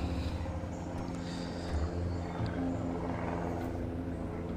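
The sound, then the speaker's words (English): A steady, rumbling engine drone of an airplane passing overhead, with a low humming tone that holds fairly constant throughout and no voices present. “That's like an airplane flying by.”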